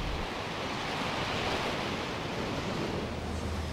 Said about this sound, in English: just as our two fishing boats are surrounded by a sea of water waves.